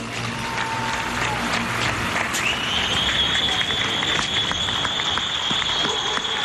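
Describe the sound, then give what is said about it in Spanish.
Sustained, dense applause from many people on their balconies, echoing across an open neighbourhood in Vallecas, Madrid, Spain, at 10 at night, with a steady whistle-like tone rising partway through and faint cheering mixed in. “También, por ejemplo, en el barriada de Madrid, en Vallecas, se escuchaban así de esta manera.”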